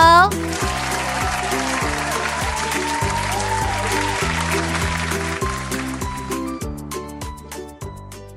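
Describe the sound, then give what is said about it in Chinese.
Hands clap steadily over a bright, bouncy musical tune, the clapping dense and lively for several seconds before thinning out as the music winds down. “我们帮他拍拍手。”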